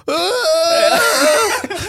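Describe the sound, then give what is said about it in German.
A person imitates Chewbacca's wailing scream: one loud, sustained, rough-voiced howl lasting about two seconds, its pitch wavering up and down before breaking off at the end. “Deswegen hört man nicht die Argumente, sondern nur so ein ja. scheiß Schreien.”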